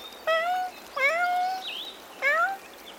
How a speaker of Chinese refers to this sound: 一样是凶猛的猫科动物，猎豹的叫声却出乎意料之外，